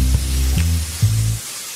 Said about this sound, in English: Rain? A rain sound?